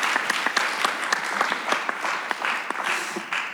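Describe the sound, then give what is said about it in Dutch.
Audience applause for a guest being introduced: a dense, steady wash of many hands clapping, with sharp individual claps standing out in an irregular patter, holding at a fairly even loudness throughout. “Applaus voor”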